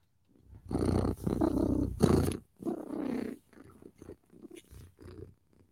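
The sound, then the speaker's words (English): A voice imitates a cat's purr with a fairly loud rumbling that comes in several bursts of a second or so, separated by short pauses and fading softer toward the end. “I'm happier when I'm purring. That's like my happy time. I love to purr.”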